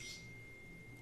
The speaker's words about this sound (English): Oops, that's my phone. I think. Oh, my bad.